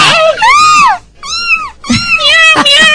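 A cat meows three times in a row, each call a loud, high, drawn-out cry with a rising then falling pitch. A short pause follows the first. The last is longest and more strained.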